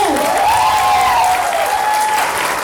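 An audience breaks into loud, steady applause that holds at full strength for a few seconds, with a sustained high whistle-like tone gliding faintly above the clapping.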